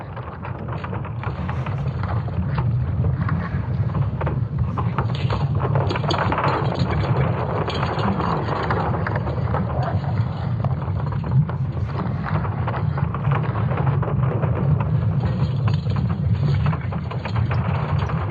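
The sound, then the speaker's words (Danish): An artistic sonification of Earth's magnetic field, the phenomenon turned into a kind of music: a continuous deep, rumbling drone with a windy, crackling texture, holding steady and fairly loud throughout with no voices. “Eller altså en kunstnerisk fortolkning af jordens magnetfelt som lyd”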